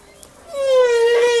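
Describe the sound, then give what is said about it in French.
A single humpback whale song unit: a sustained, harmonic-rich moan that slides slowly downward in pitch, loud and alone after a brief quiet start. “Unité sonore, c'est un, un élément, une vocalise entrecoupée de deux silences voilà, silence.”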